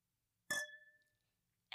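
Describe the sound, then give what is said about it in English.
A single bright clink of glasses touching in a toast, with a clear ringing tone that sustains and fades over about half a second, fairly loud, followed by a brief sharp sound at the very end. “Oh, that was a beautiful clink.”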